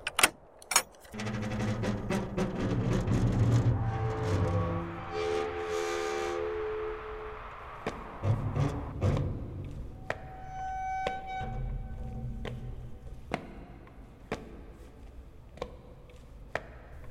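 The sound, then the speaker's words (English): Keys jangle and metal clanks sharply as a soldier works the lock, followed by a long groaning creak and ringing metallic tones as a heavy gate swings open. “Please, dear soldier, would you open the gate?”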